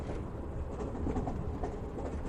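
A subway train runs along its rails with a steady low rumble and faint rhythmic clatter, heard from inside the car at a constant moderate level, with no voices.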